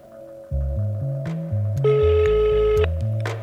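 An outgoing phone call's ringing tone: a steady electronic purr that sounds, pauses briefly and sounds again, layered over a low bass line stepping through notes, with no talking.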